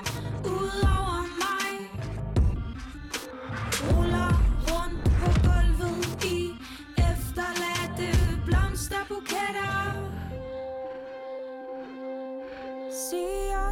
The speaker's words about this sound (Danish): du har nemlig udgivet den her single